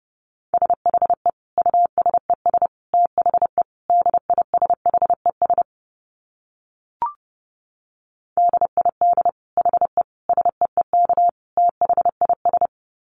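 Morse code at about 30 words per minute: a single steady mid-pitched tone keyed in rapid dits and dahs, two runs separated by a pause of roughly three seconds broken by one faint click.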